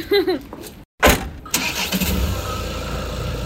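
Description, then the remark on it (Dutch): A car engine cranks briefly with a short whirring burst, then catches and settles into a steady rumbling idle as it is started to check that it works; a voice is faintly heard at the start. “En ehm, doet hij toeter het eigenlijk?”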